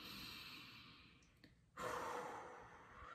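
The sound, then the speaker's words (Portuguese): A slow, deep diaphragmatic breath: a long airy inhale drawn in through the first half, a short pause, then a fuller, louder exhale sighing out. Clear, with no talking. “A respiração diafragmática, né, que é a é uma respiração lenta né, e profunda”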